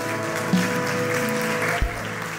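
A church audience, standing, claps together for the Lord in a steady, dense wash of applause, with no voices rising above the sustained clatter of many hands.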